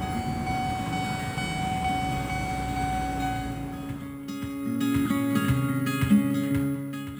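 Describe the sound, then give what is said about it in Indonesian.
A commuter train rumbles loudly through a commuter rail station, its low roar giving way to a steady humming tone and clanking, squealing sounds as it slows. No voices. “Gue udah nyampe stasiun dan lagi nunggu kereta.”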